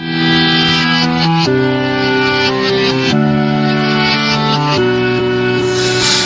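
A song plays loudly with sustained, echoing keyboard chords that shift every second or two, a steady full-band texture and no voices yet.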